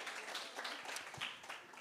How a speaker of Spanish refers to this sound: Eh, vosotros solo tuvisteis 10 minutos y en poco tiempo habéis construido algo. Entonces, muy bien, una buena prueba. Sí, daos un, aplauso a todos. Sí, sí.